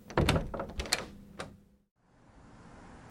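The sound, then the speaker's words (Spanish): A door rattles and clunks open as someone slips out through another door, a few knocks and a latch click follow, then it shuts and everything falls quiet before a soft, steady background hiss fills the space. No one speaks. “Mm, hay otra puerta aquí. Mejor me salgo.”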